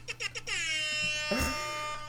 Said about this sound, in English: This has been the perfect perfect point to like throw in some fucking air horn action. Yeah. I didn't say the word no, though. No, no, I'm I'm talking like the the MLG MLG straight up like the dank air horn.